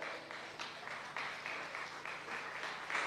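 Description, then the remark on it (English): A crowd claps steadily for a woman, a dense wash of many hands with a few louder bursts, sustained throughout with no voices on top. “Please, Round of applause for this lady.”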